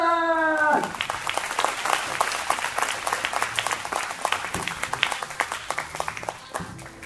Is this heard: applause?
yes